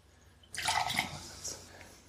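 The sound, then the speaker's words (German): Water suddenly splashes and swirls as a drinking glass is rinsed out, a bright burst of sloshing that tapers off into a few trickles and drips within two seconds. “dann kann ich mein Glas nochmal gerade ausspülen.”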